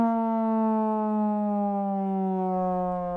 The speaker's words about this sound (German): machen Notiz Sirene einfügen.